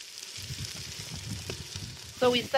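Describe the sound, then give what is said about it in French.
A garden-grown onion sautéing in a pan until tender, a steady crackling sizzle with soft low clatter as it's stirred, ending in a brief louder burst of scraping or voice-like sound near the end. “Nous avons commencé par faire cuire l'oignon. Il vient du jardin. Il suffit de le faire revenir jusqu'à ce qu'il soit tendre.”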